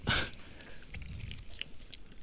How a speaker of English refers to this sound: But hey, that's why I'm drinking beer right now because I'm shy and quiet. Uh, okay, let's strange, but uh, um, let's have one sip.